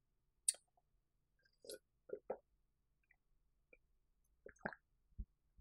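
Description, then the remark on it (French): Someone sips water, with a handful of soft gulps, wet mouth clicks and a small swallow spread over a few quiet seconds, and no talking. “je vais prendre une gorgée d'eau.”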